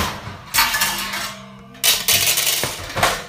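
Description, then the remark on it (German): A metal oven baking tray falls during cooking and clatters loudly, with a sharp crash followed by a second burst of rattling and a few smaller metallic knocks as it settles. “Das eine Blech ist runtergefallen.”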